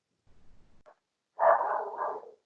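A dog lets out a single loud, drawn-out bark, preceded by faint low rustling and a tiny yip. No one speaks.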